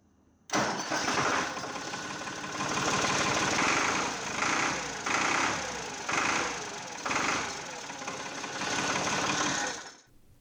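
An old Valmet 405 tractor engine from 1986 runs loud for about ten seconds, a steady mechanical chugging with a rattling edge that swells and eases in regular surges, then cuts off abruptly.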